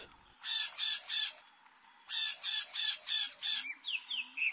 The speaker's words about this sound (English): This bird lives in the trees.